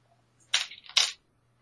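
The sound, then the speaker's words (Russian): Two short, bright clattering bursts of percentile dice rolled onto a tabletop, the second following the first by about half a second, then quiet. No one speaks. “Кидай процентный кубик.”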